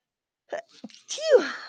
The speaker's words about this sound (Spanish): Perdón. Ay, he estado estornudando mucho hoy.